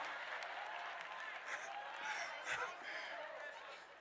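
An audience breaks into steady applause, dense overlapping claps with scattered chuckles and murmurs mixed in, holding at a moderate level for several seconds.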